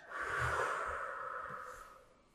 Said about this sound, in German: Technik Nummer eins ist die sogenannte Resonanzatmung. Sie ist denkbar einfach. Du atmest fünf Sekunden ein und fünf Sekunden aus